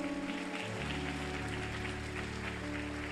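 An audience applauds God, a dense, steady wash of many hands clapping that holds throughout, with sustained low musical tones underneath.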